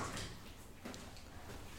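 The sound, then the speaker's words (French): A woman closes a door, a single soft, brief thud partway through, fairly faint against a quiet hiss with no talking. “Ça va être le moment où elle va fermer la porte.”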